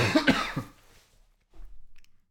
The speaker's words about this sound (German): Ich habe in die Armbeuge gehustet.